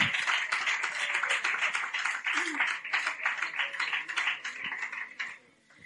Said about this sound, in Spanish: Entonces, os pido un fuerte aplauso, por favor, para la familia, que aparezca pronto y, bueno, que la volvamos a tener por aquí.